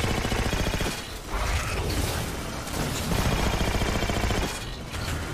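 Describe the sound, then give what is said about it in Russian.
Dense, continuous video game gunfire: rapid automatic bursts layered with heavy booms and mechanical clatter, loud and relentless for the whole stretch with only brief dips. “Опа, у меня закончились патроны.”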